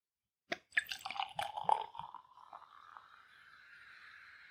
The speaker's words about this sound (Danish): fordi jeg blev så betaget af den lyd, der kom igennem øh, øh fra dig med øh, øl, der rent ned i glasset. Jamen, jeg synes også faktisk, det, det lød faktisk ganske overbevisende i min ende her.